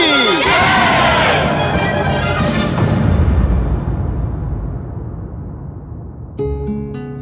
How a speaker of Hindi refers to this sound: अर्जुन की तीरंदाजी का कमाल देखकर पूरी रंगभूमि खड़ी हो गई दुनिया भर का शोर शराबा नारेबाजी